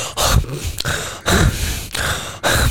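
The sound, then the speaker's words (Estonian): A voice imitates the loud, breathy gasping snorts a sleeping man makes when he starts breathing again after a pause in breathing from sleep apnea, about five harsh bursts in quick succession with brief pauses between them, and no other talk. “ja siis see pahvakas, mis pärast seda tuleb”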